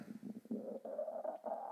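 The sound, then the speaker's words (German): A low, gurgling stomach rumble from drinking a lot of water rolls on for nearly two seconds, bubbling and rising slightly in pitch with short pulsing breaks, fairly quiet, with no talking. “Und mein Magen knurrt gerade das viele Wasser.”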